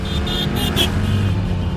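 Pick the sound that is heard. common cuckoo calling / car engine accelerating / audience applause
car engine accelerating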